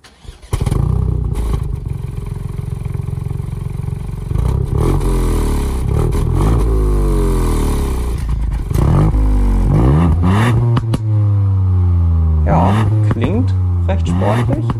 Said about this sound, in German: klingt recht sportlich. Es gibt ein bisschen, wie die Briten wahrscheinlich sagen würden, Pops and Bangs, also so kleine Verpuffungen.